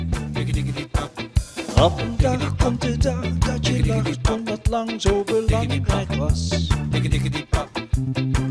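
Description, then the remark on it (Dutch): A short stretch of a Dutch-language pop song by a band from Tilburg, its frontman singing the first lines, plays loud, with a sung vocal line carried over steady band accompaniment with bass and drums. It runs continuously without pauses. “En die eerste paar regels zijn al te beluisteren op de website en klinken zo.”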